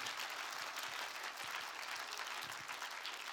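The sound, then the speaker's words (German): An audience applauds the Lord steadily, a dense wash of many hands clapping at an even, sustained level with no talking over it. “Das sind Dinge, ja, lass uns dem Herrn mal einen Applaus geben.”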